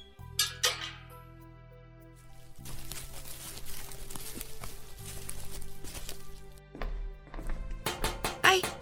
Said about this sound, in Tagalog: May kumakatok. Mauna na po kayo. May kumakatok sa gate eh.